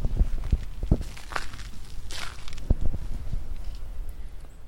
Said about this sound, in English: This bench here. You might even hear me walk in some crushed stone.